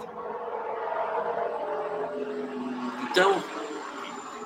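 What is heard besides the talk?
helicopter flying overhead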